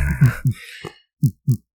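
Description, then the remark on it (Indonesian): A voice imitates a heartbeat with low, muffled thumps in two paired beats, the first pair blurred by breathy noise, then a short pause before a clean second pair. “Detak jantung.”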